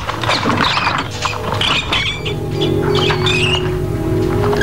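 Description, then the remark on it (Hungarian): Hungry rats in a cage squeak in quick, high-pitched bursts while scurrying and scratching patter runs underneath, a busy, continuous chatter of many animals with no voices present. “Lenyomom az első kart, és a patkányok az első részbe kerülnek.”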